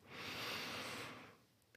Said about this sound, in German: Und das geht am allerbesten, indem wir bewusst atmen und uns auf das Hier und Jetzt einlassen. Also, los geht's, lass uns atmen.